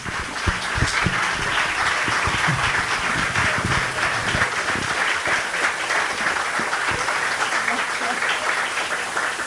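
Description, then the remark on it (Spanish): Sustained audience applause, a dense, steady wash of many hands clapping at an even loudness for about ten seconds, with scattered sharper claps standing out and no one speaking over it. “Muy bien, un aplauso para Vita, por favor.”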